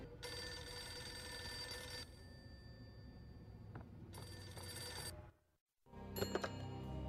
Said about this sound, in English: A phone rings.